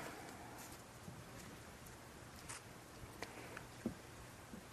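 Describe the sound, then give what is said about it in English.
Soft, steady rain falls during a retreat in a continuous hiss, with a few scattered drips and taps standing out now and then. It's quiet, and no voices can be heard. “I feel a lot of gratitude in this moment, just that I'm on this retreat, gratitude for the rain.”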